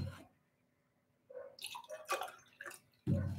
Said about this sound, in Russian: Воды попью.